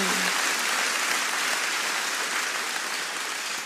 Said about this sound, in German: Können wir Jesus mal einen mächtigen Applaus geben dafür?